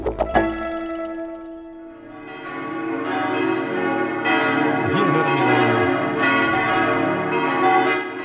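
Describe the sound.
A brief spoken phrase opens, then several church bells of the St. Oswald church in Zug peal together, their rich overlapping tones ringing loudly and steadily with long, shimmering sustain.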